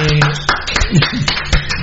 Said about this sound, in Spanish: Un aplauso fortísimo.